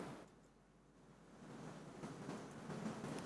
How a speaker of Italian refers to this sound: Sì, questa è acqua. Questa è acqua, ragazzi.